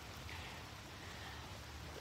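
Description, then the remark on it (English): Steady, soft rain hisses evenly throughout, a faint continuous patter with a low rumble beneath and no voices. “if you are going to the Colts and the Bears joint practices, it's raining.”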